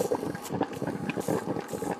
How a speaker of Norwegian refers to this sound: Barbermaskin.